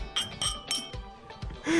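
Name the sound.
glasses clinking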